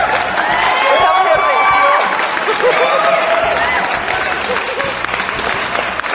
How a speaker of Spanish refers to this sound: Aplausos para la señorita manita